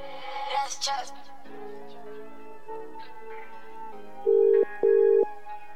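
A telephone ringback tone on an outgoing call to bring a guest on the line, two loud steady beeps in a row, preceded by faint music and a low background hum.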